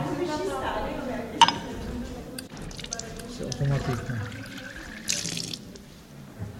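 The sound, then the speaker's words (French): Water runs from a tap into a cup for several seconds, a steady splashing with a brief clink near the start, while people talk quietly underneath. “Mettez votre coupe au de ce robinet.”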